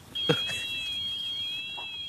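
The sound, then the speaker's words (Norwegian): A robotic lawnmower's alarm goes off as a moose confronts the mower, sounding as a steady, high-pitched electronic tone with a slight wavering, running continuously throughout. A brief knock or thud is heard near the start. “Og alarmen som går, det, det er gressklipperen som, som sier ifra.”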